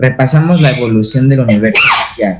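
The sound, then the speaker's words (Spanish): A single sharp sneeze bursts out near the end, fairly loud, breaking into a person's steady speech. “Salud.”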